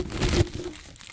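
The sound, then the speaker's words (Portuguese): Loud crinkling and rustling, like a napkin or paper being crumpled against the mic as someone wipes their mouth, lasting about a second, peaking briefly before trailing off into softer rustles. “Desculpa, cara, desculpa pelo barulho. Tô limpando a boca aqui.”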